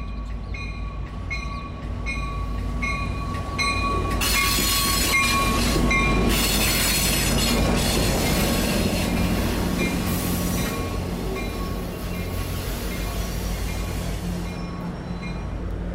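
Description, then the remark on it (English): An Amtrak California commuter train, the San Jose train number 525, rumbles steadily into a station on a Monday morning with headlights blazing, its wheels screeching and squealing on the rails as it draws in, with a faint bell-like ringing in the background and no voices. “The train is coming into the station now with its headlights blazing.”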